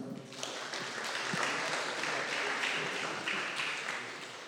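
A crowd applauds steadily for several seconds, a dense, continuous wash of many hands clapping at once, fairly loud and sustained without any speech over it.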